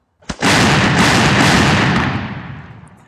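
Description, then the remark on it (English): A single loud cannon blast with a sharp onset, followed by a long rumbling roar that slowly fades over a couple of seconds, on its own with no voices; captured Mexican cannons fired by U.S. soldiers at the retreating Mexican army in battle. “The U.S. soldiers soon turn these guns on the now retreating Mexican army.”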